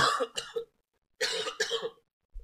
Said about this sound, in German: Ganz so ein scheiß Husten, ey. Mann. Liegt, glaube ich, am Parfum, das mir irgendwie in den Rachen zieht. Total unangenehm.